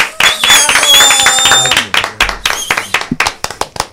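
A crowd breaks into lively applause alongside a bright musical tone, welcoming guest José Antonio Rodríguez, an artist, composer and cultural manager, and the clapping thins out toward the end into scattered, individual claps.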